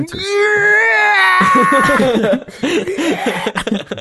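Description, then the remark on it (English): A voice imitates the Howie scream, a stock movie scream heard in a movie: a long, high, wavering wail held for over a second, breaking into choppy, laughing vocal bursts afterward. “oh yeah, there was a Howie scream in this movie.”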